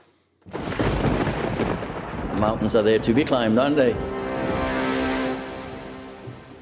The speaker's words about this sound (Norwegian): Og, og, det trengs jingle!